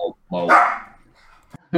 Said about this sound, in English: Oh, oh my gosh. Oh, this dog's barking.